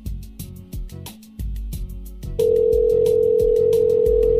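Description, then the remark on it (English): A phone call's ringing tone while waiting for an answer: a series of short electronic beeps, then a loud, steady, unbroken tone filling the second half, with no voices. “Sitting here, waiting, ringing, ringing.”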